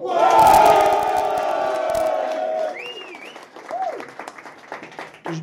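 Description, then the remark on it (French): A live audience bursts into loud applause and cheering for the technician, with sustained shouts and whoops over dense clapping that gradually thins out into scattered claps and a few rising calls. “Évidemment, je vous demande un tonnerre d'applaudissements pour celui sans qui rien ne serait possible, celui qui est à la technique, celui qui a une magnifique barbe, des cheveux encore plus beaux que sa barbe,”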